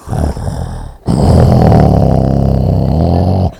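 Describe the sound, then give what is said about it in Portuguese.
A person loudly imitates a man's snoring with two rough, rumbling growls: a short one, a brief pause, then a longer sustained snore, harsh. “Roncava assim, parecia um urso.”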